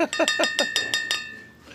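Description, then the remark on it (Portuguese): Glasses clink together in a toast to Prússia Beer, several quick bright taps in a row, fairly loud, with a clear glassy ring that lingers and fades after the last touch. “a vocês aqui um, um brinde aqui especial à Prússia Beer, né?”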